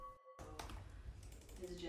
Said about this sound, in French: C'est dans un petit local aux allures de chambre d'ado à Bucarest que les jeunes développeurs de l'ONG Code for Romania pianotent sur leur clavier.